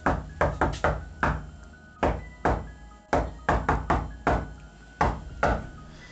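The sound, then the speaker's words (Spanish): Fourteen small, sharp knocks heard on a tape recording made over several hours in an empty house, in irregular clusters, some quick doubles and triples, others spaced apart, over a faint steady hum with no voices. “Y tras muchos minutos sin escuchar nada, en la grabación sonaron 14 pequeños golpes.”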